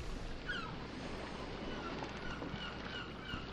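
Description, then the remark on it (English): A steady, rushing wash of waves and wind around a drifting boat on open water, continuous, with a few faint seagull calls drifting over the top. “Out on the water.”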